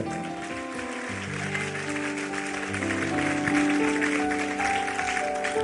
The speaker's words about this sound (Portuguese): Aplauda então ele, querida.